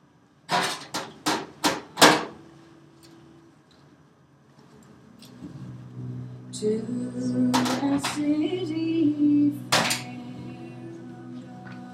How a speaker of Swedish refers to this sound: Jag ska bara lägga in en ved i brasan.